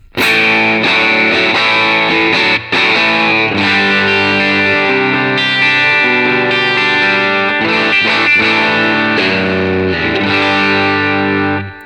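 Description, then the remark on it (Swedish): An electric guitar played through an amp with light, low-gain crunch, the bass turned up slightly and the treble lowered, strumming full, ringing chords that sustain and change steadily for about twelve seconds, loud and steady with no voices. “Och det här ljudet som vi har nu, med inte jättemycket game på, Kör man in en liten liksom, en eh, treble booster eller någon liten boost innan det här oh, ja.”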